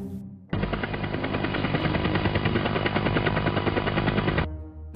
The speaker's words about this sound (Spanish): Un extraño artilugio vuela sobre el tejado. Es como un helicóptero, pero más pequeño y mucho más raro.